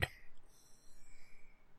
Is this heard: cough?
yes